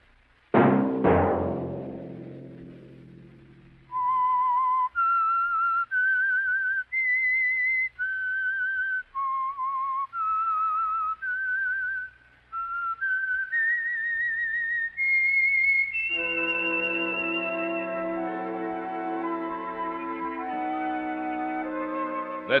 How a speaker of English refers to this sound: that whistle be your signal for the Signal Oil program, The Whistler, each Sunday night at this same time